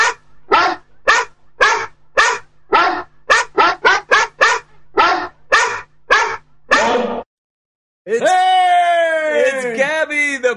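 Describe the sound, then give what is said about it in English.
A big pitbull barks loudly, about fourteen sharp barks in a quick, uneven run, then a brief pause before a long, wavering, whine-like tone. “Postal Pitbull with it our sure fan is. mail.”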